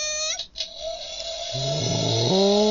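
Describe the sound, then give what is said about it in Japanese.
A hair dryer blows steadily after a shampoo, a loud airy roar with a whining motor hum whose pitch shifts and steps up partway through, as if the setting changes. “シャンプー終わったら次何するんですかドライヤードライヤードライヤーをかけ”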